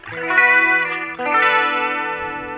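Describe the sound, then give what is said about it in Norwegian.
A sustained, shimmering instrument tone with a lush chorus effect, its harmonics gently wavering. It holds steadily for a couple of seconds, briefly dips, then swells back, loud with no talking. “Lyden av korus.”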